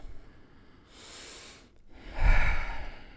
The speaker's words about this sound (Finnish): Ota kunnon hengitys.